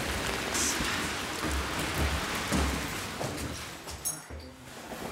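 heavy rain

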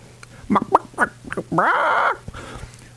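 chicken clucking sound effect

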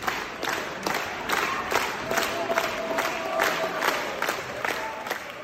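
long applause

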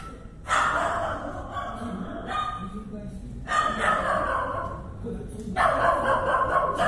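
neighbor's dog barking

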